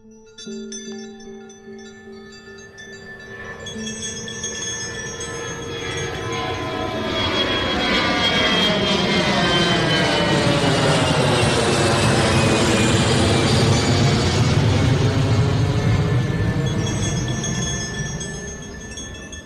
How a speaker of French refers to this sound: Les néons de l'aéroport de Narita étincelaient jusqu'aux pistes. Sur le tarmac, un Airbus chauffait ses moteurs